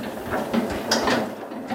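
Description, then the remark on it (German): An old tractor engine, started in a garage with the hand throttle at full and in neutral, chugs along in a steady, rhythmic clatter of mechanical knocks, fairly loud and without any voices over it. “Ja, und jetzt tuckelt er los.”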